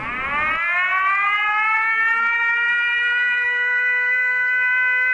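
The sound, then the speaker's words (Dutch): A recorded air raid siren, played from a tape over a hotel's loudspeaker system, winds up from a low pitch into a steady, loud wail that holds for several seconds, slightly tinny, with no talking. “Eh, en als dan het luchtalarm weer voorbij is, dan heb je de volgende boodschap.”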